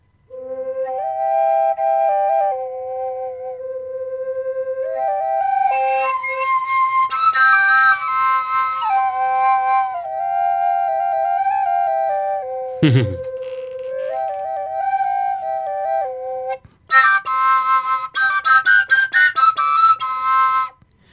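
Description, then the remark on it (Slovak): A double folk pipe played by a single player plays a breathy, reedy melody over a steady sustained tone, sounding like two pipes played at once, with a brief sliding dip near the end before a brighter, busier closing phrase. “To, to je to práve, že to pôsobenie tej dvojitej pišťaly je to, že jednak to znie ako keby dvaja”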